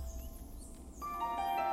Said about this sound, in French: Est-ce un oiseau que l'on entend Eh bien non, c'est l'appel d'un crapaud accoucheur.